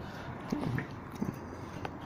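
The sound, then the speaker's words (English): Chewing and biting of Taco Bell fast food, eaten fast, with soft wet crunches popping up every half second or so over a quiet hush, with no talking. “Uh, but I'll try and chew fast so that I can keep talking”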